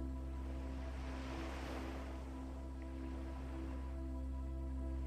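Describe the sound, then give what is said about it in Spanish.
A wave rolls in and washes up the shore with a soft rushing swell that peaks early and fades, over a steady low humming drone, with no voices. “Feel the abundance of the beautiful beach that surrounds you.”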